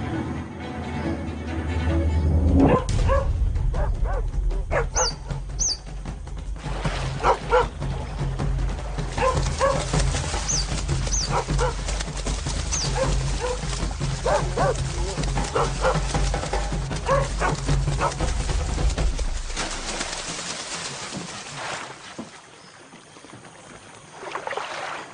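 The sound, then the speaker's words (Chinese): Wild dogs in a reserve in northern Singapore bark and yip in scattered, high-pitched bursts at otters that have gone into the water, over a steady low rumble and the splash of water, the calls fading out near the end. “水獭下水后就安全了，野狗奈何不了团结一心的水獭”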